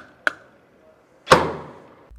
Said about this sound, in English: And then whenever you want to open the door of the vehicle, you can just walk up and knock on the B pillar twice.